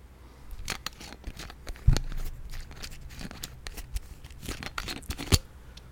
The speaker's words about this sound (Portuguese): Fechando, vou, vou colocar o som da, da tampinha fechando pra vocês, ó.